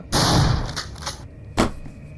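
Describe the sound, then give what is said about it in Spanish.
A loud rifle gunshot blasts with a long rumbling tail, followed about a second later by a second sharp, shorter crack. No voices are heard. “Yo, yo, le disparo, le disparo, tengo el fusil cagado.”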